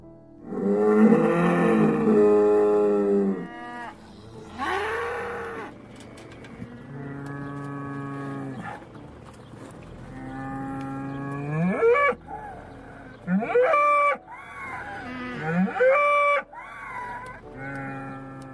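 A bull bellows repeatedly, with long, deep, loud calls that rise and fall in pitch, some ending in higher strained cries, spread across the whole stretch with no talking.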